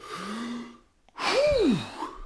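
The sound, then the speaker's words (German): A beginner trumpet student takes a deep, drawn-in breath lasting most of a second, then after a brief pause blows a loud, breathy blast of air with a rising-then-falling tone into the trumpet, trying to get the first note out. “Stell mir vor, so ein, so ein Anfängerschüler atmet einmal tief ein und versucht den ersten Ton aus der Trompete rauszubekommen.”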